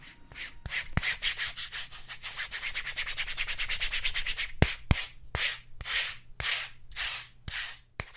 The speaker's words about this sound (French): c'est le bruit de Italy Towel, ou la serviette italienne, ce petit gant réservé au gommage.